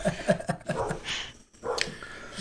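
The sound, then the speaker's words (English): A dog barks in a quick run of short, sharp yaps, followed by a few scattered rougher barks, moderately loud, with no talking. “This is real life here with dogs barking and people walking by my back fence.”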